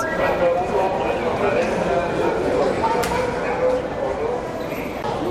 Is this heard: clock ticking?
no